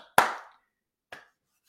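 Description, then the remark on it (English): Two sharp hand claps about a second apart, the first loud with a brief ringing decay, the second softer. No voices, just silence between them. “Round of applause.”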